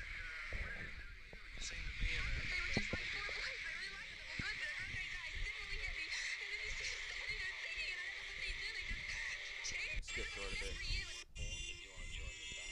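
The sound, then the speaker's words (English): A remix of a song plays continuously, its warped, wavering vocal tones almost bleat-like over a dense, distorted mix, fairly loud throughout, with an abrupt shift in texture near the end. “it's actually a remix.”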